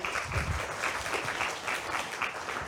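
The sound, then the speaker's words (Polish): A crowd applauds steadily after a lecture, many hands clapping in a dense, continuous patter at moderate loudness with no voices on top. “E, ja bym powiedział tak, wielkie brawa, na pewno się kubeczek należy.”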